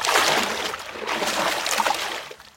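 Water splashes and sloshes steadily for a couple of seconds, a broad churning wash that stays fairly loud before easing off at the end, with no voices.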